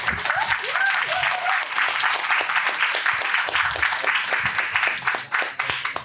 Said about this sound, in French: Et pour une mise en bouche du thème, je vous demande un tonnerre d'applaudissements, parce que c'est sa première avec nous,